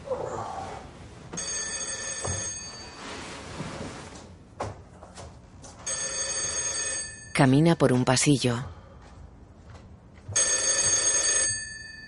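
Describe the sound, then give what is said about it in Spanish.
A telephone bell rings in three long, evenly spaced bursts, loud, in Valery Legasov's Moscow flat at 7 in the morning, with a man's voice speaking briefly between rings as he approaches the phone, and some softer room noises in the gaps. “Se acerca al teléfono.”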